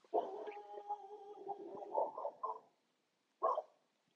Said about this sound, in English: There's my dog opening up.